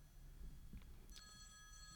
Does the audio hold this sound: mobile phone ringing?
yes